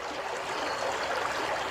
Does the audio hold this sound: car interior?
no